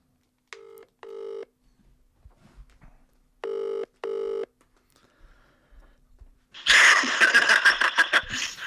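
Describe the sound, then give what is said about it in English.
An outgoing phone call rings with a double-pulse ringback tone, heard twice with a pause between, followed by a sudden loud, crackly burst of sound as the line opens. “let's try and get Jimmy on the phone now. Let's just let's just ring him up.”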